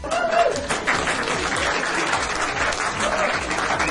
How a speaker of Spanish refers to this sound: Un aplauso para ella.